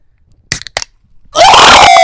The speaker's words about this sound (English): Dude, I love the sound when you snap open a bottle or crack a can.